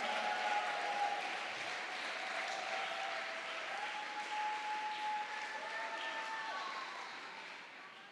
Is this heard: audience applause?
yes